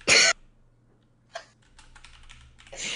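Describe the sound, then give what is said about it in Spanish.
Keyboard typing a message: loud bursts of rapid key clatter at the start and end, with a lighter run of scattered clicks in between, with no talking. “pues le estoy escribiendo para ver si así deja de faltarme el respeto cada vez que escucha mi voz por un audio.”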